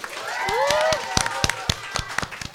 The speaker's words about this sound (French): petite main d'applaudissement, il est là aujourd'hui.